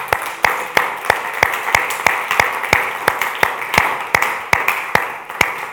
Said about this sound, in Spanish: Dele un aplauso, Señor, por favor.